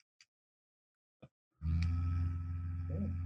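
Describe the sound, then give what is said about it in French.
Two soft clicks like button presses, then the motor of a vibrating masturbator sex toy made to reproduce a mouth for oral sex switches on, giving a loud, steady low buzz with a rough harmonic drone that runs continuously to the end. “Puis ça vibre fort, là.”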